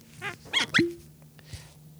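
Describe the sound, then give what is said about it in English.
A whisky bottle bearing a UK duty tax stamp is uncorked: a brief squeak of the stopper followed by a hollow, resonant pop, then a couple of faint clinks and handling noises. “Hold on, I got to just open this”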